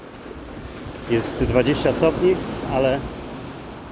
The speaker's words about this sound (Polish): Słyszycie wzburzone fale na pewno w tle mocno